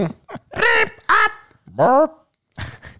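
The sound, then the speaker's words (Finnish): A voice imitates a rapid jumble of game buzzer sounds, as when four players scroll through the buzzer sound choices at the same time: four or five loud, nasal, honking bursts in quick succession, some rising or wobbling in pitch, with short gaps between them. “Niin sitten kun kaikki neljä pelaajaa alkaa yhtä aikaa selaamaan niitä summeriääniä, niin se on just semmoinen”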